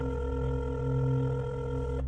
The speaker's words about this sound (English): And as the phone was ringing, he could hear Deborah's phone ringing upstairs okay, maybe Deborah is upstairs, she fell asleep, and her phone's just next to her on the bed.